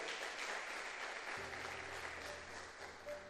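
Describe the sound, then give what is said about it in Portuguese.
An audience applauds steadily, a dense wash of clapping hands with no voices over it, joined partway through by a low sustained organ or keyboard tone. “Aplauda ao teu Deus, porque o teu Deus é bom.”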